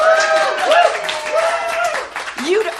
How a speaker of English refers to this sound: pause for cheap applause.